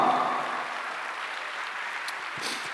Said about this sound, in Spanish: Y le dan un fuerte aplauso al Señor.